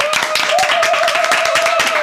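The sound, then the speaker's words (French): Dense, steady applause from a crowd applauding the Virgin Mary: many hands clapping at once in a continuous loud patter, with a faint sustained tone running underneath. “frères et sœurs, alors que vous êtes plus de 7000 en connexion simultanée, qu'on applaudisse la Vierge Marie.”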